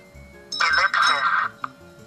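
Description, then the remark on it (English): A quiz answer bell rings out loud in two quick back-to-back bursts during a Zelda Dungeon trivia quiz, its bright tone lasting about a second, followed by a brief faint blip. “I think I heard the bell first, though.”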